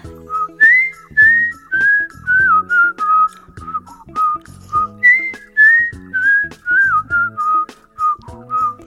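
A production staff member of the radio show Kang Han-na's Volume Up whistles a lilting melody, clear, with short phrases and pitch glides, over a steady keyboard accompaniment playing chords underneath.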